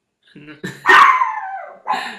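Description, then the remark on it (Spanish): A dog named Mickey lets out a few short barks, one stretching into a drawn-out, falling yelp, followed by another quick bark, fairly loud with no talking over it. “hoy perro!”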